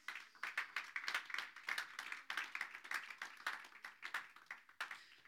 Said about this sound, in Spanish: Gracias, jóvenes. Amén. Un aplauso a los jóvenes.